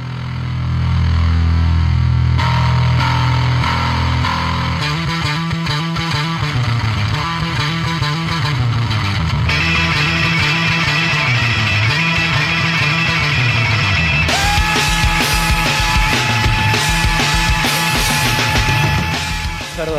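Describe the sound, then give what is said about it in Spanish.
A loud rock song with heavily distorted guitar and bass, pounding drums and a dense, constant wall of sound; the texture shifts in sections, growing brighter and fuller toward the end, with no talking. “Yo me voy a callar para que se, eh, presten atención cómo el ataque que tiene y, el ruido que genera”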